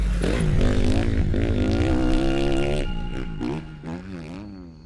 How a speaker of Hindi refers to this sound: अपनी पत्नी के मना करने के बाद भी घर जल्दी पहुंचने के लिए अक्षय ने अपनी बाइक ब्लू वे हाईवे पर मोड़ ली